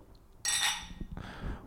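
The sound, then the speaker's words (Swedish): Glasses clink together in a toast: a bright, ringing chime that fades out, followed moments later by a second, softer clink, with no talking. “Skål! Skål!”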